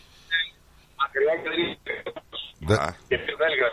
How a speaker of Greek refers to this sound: Δεν σε ακούω. Γιατί κάνεις διακοπές